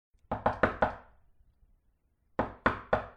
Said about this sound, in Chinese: 上午，有人在门口敲门。